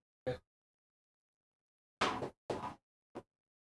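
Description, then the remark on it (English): A light knocked over by kicked cables is handled and set back upright: a short sharp knock, then a pause, two scraping clunks close together, and a final small tap, with no talking. “Oh, I just knocked uh, one of my lights over.”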